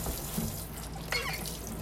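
Tap water runs steadily into a sink with a broad hiss while dishes are being washed, and a brief clink of dishes sounds partway through. Nobody speaks.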